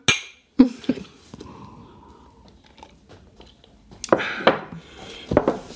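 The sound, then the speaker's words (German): Glasses holding tea liqueur clink together a few times in a bright toast, followed by soft handling and table noises, with no talking. “so, also, also, zum Wohl.”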